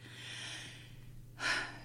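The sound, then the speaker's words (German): A long breath drawn in through the nose with a soft airy hiss during a guided breathing exercise, followed by a brief louder rush of air at the end. No one speaks. “Atmet ein in die Nase und in das Herz aus.”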